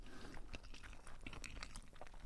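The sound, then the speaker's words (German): Closed-mouth chewing: a steady run of soft, moist smacks and small clicks at an irregular pace for a couple of seconds, fairly quiet, with no talking. “Das ist ja Dieses, Schmatzen irgendwie. so, so, Mund ist ja zu.”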